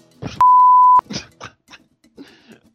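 A single steady censor bleep, a pure high tone lasting about half a second, cuts over a man's voice; speech-like fragments continue around it.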